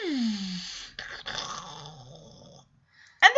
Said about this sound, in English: This is cool effects as Eric is playing with this jet. You hear the jet.